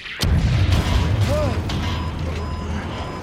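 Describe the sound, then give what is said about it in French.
A surface-to-air missile strikes American spy pilot Gary Powers' plane over the Soviet Union with a sudden sharp blast, and the plane loses power. This is followed by a loud, sustained low rumbling roar with faint whining tones over it. “Ce sont des missiles sol-air. L'avion est touché, il perd de la puissance.”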